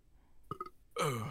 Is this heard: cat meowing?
no